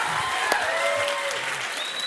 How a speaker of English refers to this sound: I'm waiting for more. No, just kidding. The less claps I get, the longer I take.